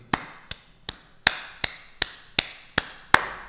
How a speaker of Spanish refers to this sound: Y la vieja dice, si no vas a hacer que así me suene el culo, no te quiero.